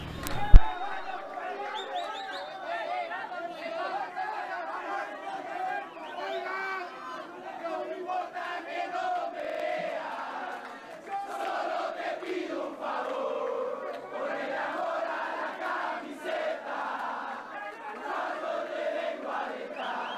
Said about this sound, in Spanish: Ya se escuchan las porras en el Estadio de la Pedrera. Ya se escucha el latir de un corazón apasionado por el albo. Ya se hace sentir la afición